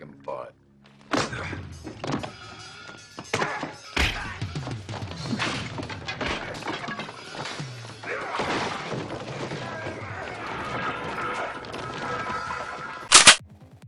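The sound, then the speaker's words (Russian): Roundhouse kicks by Chuck Norris as Walker land as sharp, punchy thuds at an irregular pace, a few hitting hard, over a busy, noisy fight-scene background with voices and scuffling. “Кстати, главной причиной его известности является удар ногой с разворота.”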